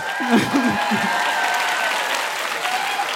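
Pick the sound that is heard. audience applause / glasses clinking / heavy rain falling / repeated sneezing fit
audience applause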